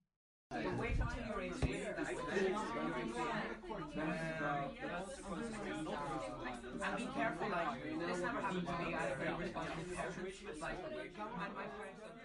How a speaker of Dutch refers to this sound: Dat geluid van pratende mensen, als het dus totaal niet relevant voor jou is, kan voor veel mensen juist ook helpen om focus te ondersteunen omdat het een soort effect is van mensen die werken.